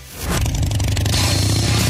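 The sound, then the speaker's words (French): A motorcycle engine rumbles to life and holds a loud, steady, deep idle with a throbbing low-pitched pulse and some rattly mechanical texture, no voices present. “Si ce son te parle, c'est certainement un signe. L'appel de la liberté vient de sonner. Direction Léo Harley-Davidson Brossard.”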